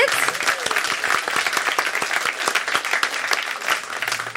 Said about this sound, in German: Applaus.